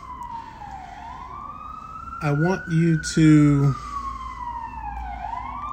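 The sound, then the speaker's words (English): A wailing ambulance siren sweeps slowly up and down in pitch throughout, moderately loud and steady as the ambulance passes by, while a man briefly speaks over it in the middle. “I want you to uh, allow this ambulance to pass by.”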